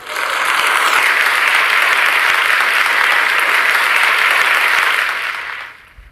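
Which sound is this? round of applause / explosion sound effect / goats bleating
round of applause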